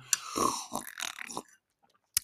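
Someone takes a sip of a drink, with a short slurp followed by several throaty gulps, then a brief pause and a sharp click near the end.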